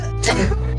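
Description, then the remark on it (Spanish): A single loud, explosive sneeze bursts out, a sharp, breathy blast that quickly fades, with no talking around it. “Es, salud. salud.”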